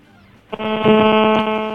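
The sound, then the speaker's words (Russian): After a brief low hum, a loud, harsh buzzing howl of feedback kicks in abruptly as a caller holds a mobile phone up to a radio receiver, holding steady with a fast, pulsing flutter. No one speaks. “Нет, видимо, первый раз человек позвонил и э, зачем-то начал подносить мобильный телефон к приемнику.”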